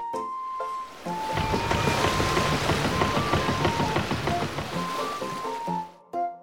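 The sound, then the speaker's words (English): A boat moves through water, with a steady wash of splashing and rushing water that swells after a brief pause, continues for several seconds, then cuts off. No one speaks. “One day in May, I sail on a boat.”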